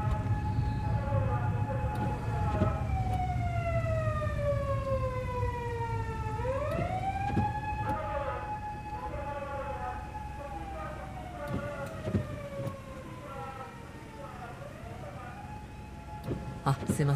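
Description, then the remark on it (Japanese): A loud police siren from an unmarked police car wails continuously over low traffic rumble, its pitch sliding downward as the car speeds past, then sweeping back up and continuing to wail as it moves on. “完全にパトカーをパトカーに気を取られてしまいました”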